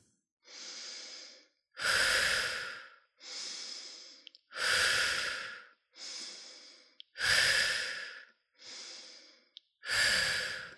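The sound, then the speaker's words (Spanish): Deep, rhythmic breathing during a guided breathing exercise: slow full inhales alternate with longer, forceful exhales, about eight breaths in steady succession with brief pauses between them and no talking. “Empezamos con nuestro ritmo de la respiración.”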